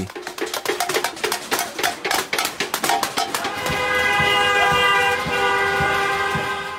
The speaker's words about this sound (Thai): บริเวณสี่แยกในช่วงกลางคืน คนที่ขับรถไปมานัดกันบีบแตรเสียงดัง ๆ อย่างต่อเนื่อง